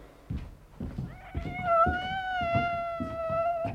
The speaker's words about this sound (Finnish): Hyi saakeli, onpas sillä kollilla karmi ääni. Oikea ruumiskellarin kissa.